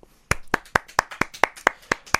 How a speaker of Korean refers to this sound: 박수 한번 칠까요?